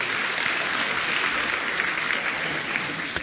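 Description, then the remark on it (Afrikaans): A church audience applauds a member back for the first time after an operation, in a steady, dense wash of clapping that holds at an even, fairly loud level for the whole stretch, with no voices standing out. “Met kerk, gee vir ook 'n lekker hande klap toe.”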